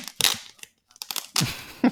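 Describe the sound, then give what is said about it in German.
A small A6 air-padded mailing envelope is torn open, several loud, scratchy bursts of tearing and crinkling separated by brief pauses, with no one speaking. “Ihr hört das Klicken und das Ziehen.”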